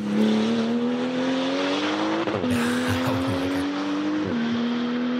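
A loud stripped-out race car engine, with all insulation removed and only one seat, revs steadily, its pitch climbing in two surges with brief drops between gear changes, a harsh raw roar with no voices.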